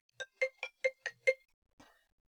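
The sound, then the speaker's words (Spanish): A phone ringtone for an incoming call from the speaker's boss chimes six quick, evenly spaced melodic tones, clear, then cuts off with a brief faint rustle. “Ay, me está llamando mi jefe, espérenme.”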